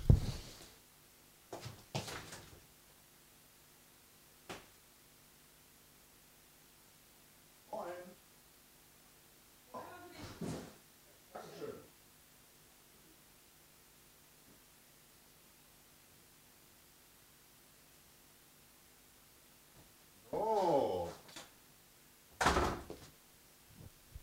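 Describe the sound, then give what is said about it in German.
Mail pushed through a door's letterbox: a scattered series of short clattering and rustling bursts, some close together, with the loudest pair near the end, against a quiet background hum. “Oh, jetzt kriege ich gerade wieder Post hier.”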